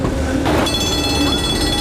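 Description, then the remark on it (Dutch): A tram rumbles past in a city, and partway through its bright bell starts ringing and keeps sounding over the steady rolling noise. “Het trammetje komt langs.”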